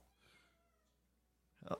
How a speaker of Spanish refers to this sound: ¿Dónde está el gato? ¿Escuchas al gato? ya, miau.